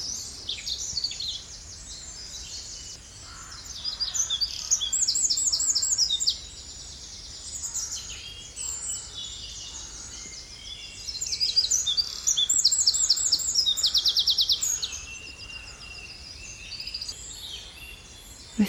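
A spring chorus of birdsong in a West Country oak woodland, with bright, trilling phrases and repeated chirps from several birds, rising and falling in bursts over a quiet outdoor background.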